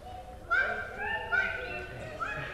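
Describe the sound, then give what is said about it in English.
Children's voices imitate bird calls, with high, bright chirping tones rising and falling in short overlapping bursts, several voices together at moderate loudness. “How about imitating a bird?”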